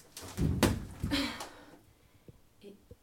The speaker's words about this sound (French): Je toque à la fenêtre en toquant.